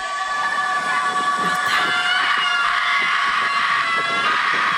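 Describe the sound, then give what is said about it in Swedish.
A large crowd of students in Flogsta doing a collective primal scream at night, a dense, continuous wall of overlapping howls and shrieks that stays loud throughout and echoes. “Ett primalskri. Vad roligt! Här har vi The Flogsta Scream.”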